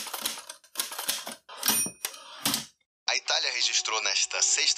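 Loud typewriter keys clack in quick irregular bursts for a couple of seconds, then stop briefly before a dense, sustained tonal sound, like music or singing, takes over.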